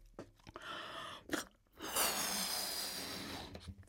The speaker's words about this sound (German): Und ich habe hier zum Beispiel einen Luftballon, in den puste ich mal rein, mal gucken, ob man den dafür gebrauchen kann.